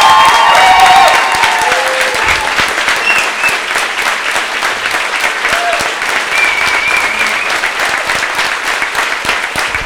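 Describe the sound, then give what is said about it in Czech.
A large audience, asked for another round of applause for two men, breaks into sustained applause, dense and steady for about ten seconds, with a few faint cheers or whoops near the start. “Takže jestli můžu poprosit ještě jeden potlesk pro Vítka a Filipa.”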